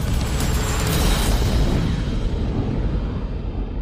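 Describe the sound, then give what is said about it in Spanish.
A loud, sustained roar of a series of explosions somewhere behind Russian lines in the early morning, rumbling heavy booms running together into one continuous wash of deep noise that gradually loses its hiss toward the end. No voices. “En algún lugar detrás de las líneas rusas, una serie de explosiones ilumina la madrugada.”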